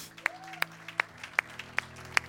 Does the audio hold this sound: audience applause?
yes